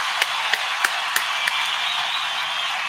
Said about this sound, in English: Let me get a round of applause for you and your suitcase and your guy. You know I mean? We out here representing.